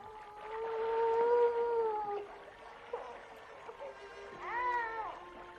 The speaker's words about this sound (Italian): Mi sembra di udire un lamento, come se fosse un bambino che piange.